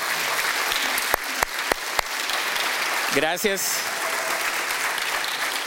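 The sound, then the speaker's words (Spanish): Sustained applause from a large audience at a Spanish-language church service, applauding visiting missionaries from Oaxaca; steady and dense with a few sharper claps standing out, and a man briefly speaks over it midway. “Un aplauso fuerte para ellos.”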